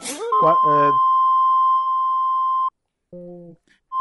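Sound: censor beep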